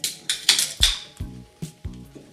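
Glasses clinking together in a toast at the start of a recording at Litica FM in Meguro ward, about seven quick, bright clinks in an uneven run, a couple of them leaving a short high ring before fading.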